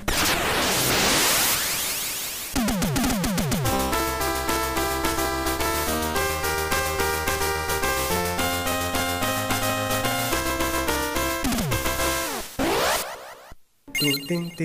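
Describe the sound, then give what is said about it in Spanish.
A bright, bleepy arcade-game theme plays on its own, a synthesized melody of stepped electronic notes, bracketed by hissing noise sweeps at the beginning and end; the game's music was the same as that of the cartoon it was based on. “escuchar la musiquita, a ver, por favor, ahí vamos a escuchar un poquito la,”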